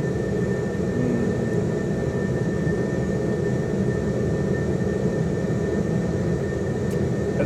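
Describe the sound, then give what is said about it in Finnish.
A loud, steady aircraft engine drones with a dense low rumble and a faint high whine as its revs rise for takeoff, holding an even level throughout with no voices. “Niin nyt moottorin kierrostutu nousee ja kone on riippuu eteenpäin”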